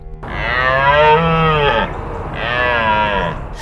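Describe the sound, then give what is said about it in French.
A deer stag bellows twice, each call a long, loud, hoarse groan, the second slightly shorter after a brief pause, with no other sounds around it. “Mais au moment où elle va pour le saisir, elle entend un cri rauque.”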